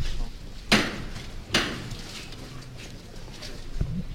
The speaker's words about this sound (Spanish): Y el llamador que suena al fondo.